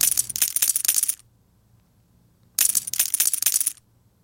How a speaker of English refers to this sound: Poker chips. Mm-hmm. Oh, yeah. Poker chips for all you gamblers out there.